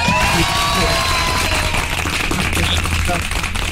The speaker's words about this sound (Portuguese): Então eu queria aproveitar e uma salva de palmas para Paulo Macedo.